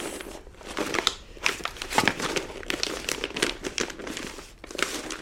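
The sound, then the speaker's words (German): Continuous crinkling and rustling of paper sheets being shuffled and handled as a woman searches for her papers from prison, with irregular bursts of crackly noise over several seconds and no voices. “Die Papiere aus dem Gefängnis muss sie nicht lange suchen.”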